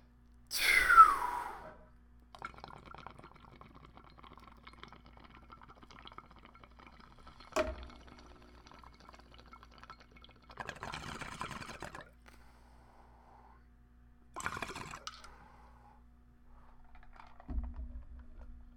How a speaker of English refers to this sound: So we are gonna fucking smoke this bong toke and keep this train rolling. Three, two, one, blast off.